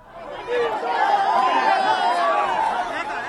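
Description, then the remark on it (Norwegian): A dense crowd at a political rally for President Jair Bolsonaro murmurs and chatters, many voices overlapping into a steady, fairly loud din that swells in after a brief quiet start, with scattered excited calls, applause and a hint of laughter as a young girl is let through for a selfie with the president. “Til stor applaus slippes hun frem i mengden og får sin selfie med presidenten.”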